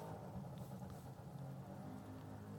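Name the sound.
moped engine revving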